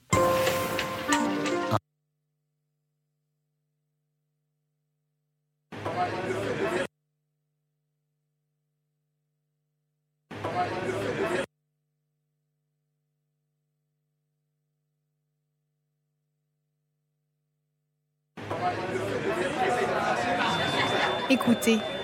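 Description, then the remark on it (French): Dense crowd babble comes in short bursts separated by silence, then returns longer at the end, where a steady high-pitched ringing tone sits above the many overlapping voices. “Vous entendez Ce brouhaha, ces voix incessantes, ce bruit aigu qui fait bourdonner vos oreilles.”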